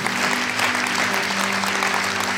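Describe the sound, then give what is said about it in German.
A crowd at a Christian prayer gathering applauds steadily for everyone who took this step today, a dense wash of many hands clapping at once, loud and continuous for the whole stretch with no voices standing out. A low, steady hum lies underneath. “Lass uns mal einen Applaus geben für jeden, der diesen Schritt heute gegangen ist.”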